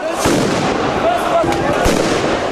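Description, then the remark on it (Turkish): Sharp fireworks bangs burst out at irregular intervals over a constant roar of crowd noise, with whistling tones and a loud, chaotic outdoor atmosphere: far-right demonstrators attacking the Russian Embassy with fireworks at night. “Gece saatlerinde Rusya Büyükelçiliği'nin önüne gelen aşırı sağcı göstericiler havai fişeklerle saldırı düzenledi.”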